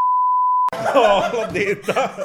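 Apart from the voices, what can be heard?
censorship bleep tone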